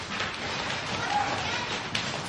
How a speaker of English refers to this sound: Come on, everyone stomp your feet right now.